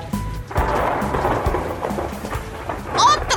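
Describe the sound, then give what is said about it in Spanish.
Heavy rain pours steadily with strong wind while low rumbling thunder rolls underneath, with a brief bright, warbling tone rising near the end over the storm. “día horrible. No puede ser. ¿Por qué tenía que llover otra vez?”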